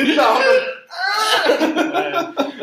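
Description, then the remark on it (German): A voice imitates an old freight train braking, like a train in a Mickey Mouse cartoon when someone pulls the brake, giving a loud, strained, screeching groan that wavers in pitch, briefly breaks off, then grinds on in rough pulses. “Ja, ich meine einfach, dass so, klingt wie so ein alter Güterzug.”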